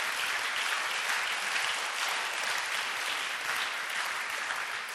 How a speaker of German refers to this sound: Und das, ja, das ist ein Applaus wert für Gottes Eingreifen.